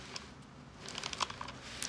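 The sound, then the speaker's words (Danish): Soft paper handling: a few light crinkles and dry taps as a small paper coupon is turned over, quiet and brief, with no one speaking. “Men nu vender du den om, kan jeg se.”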